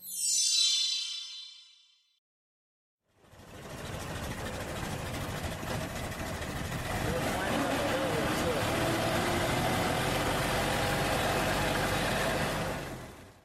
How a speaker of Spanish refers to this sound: Sí, es un coche, pero no cualquier coche. Es el que marcó el principio del cambio de la industria automovilística